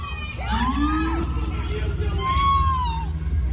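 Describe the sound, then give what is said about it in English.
A chaotic crowd of protesters shouts and yells over a steady low rumble, with several rising and falling screams cutting through, as a driver in a Volkswagen sedan plows through the 10 p.m. demonstration on the Brooklyn Bridge, hitting two people, on the anniversary of George Floyd's death. “A driver plowed right through protesters. The car hit two people.”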